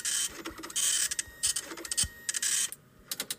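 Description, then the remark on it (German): A printer in a video game runs in bursts of bright, rasping mechanical noise, with its print head clattering back and forth and brief pauses between passes, fairly loud with no talking. “Drucker, geh doch aus.”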